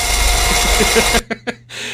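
An electric shaver buzzes loudly and steadily for about a second, cuts out with a few short clicks, then starts buzzing again more quietly.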